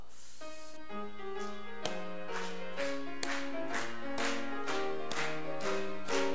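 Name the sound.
audience clapping along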